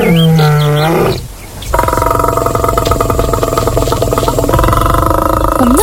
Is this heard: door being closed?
no